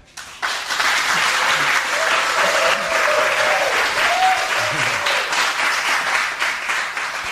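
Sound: audience applause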